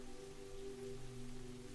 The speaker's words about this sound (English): The sound of that rain pitter pattering against the roof and the glass is a background, ambient noise to the rest of your journey through the library one that brings you comfort.